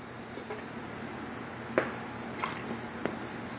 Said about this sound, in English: Excuse me. Let me get a drink of water.